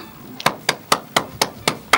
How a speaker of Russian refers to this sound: Не знаю, слышны ли мои аплодисменты, но э, я, я восхищен. Я просто восхищен. Я думаю, что к моим аплодисментам присоединились аплодисменты наших слушателей, которые услышали это вот нечто совершенно восхитительное.